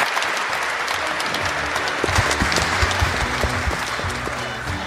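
A large audience at the Spirit Pride event claps steadily and loudly for several seconds, a dense, continuous wash of applause with a faint murmur of voices underneath.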